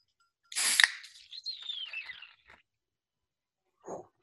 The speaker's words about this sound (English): Let's get it close to the mic. I love opening the Guinness can. Ready? Here we go.